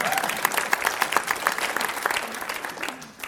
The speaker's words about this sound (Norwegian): Og nå i februar så skal jeg gi ut min første bok. Ikke sant? Ja, du kan gi en applaus for det.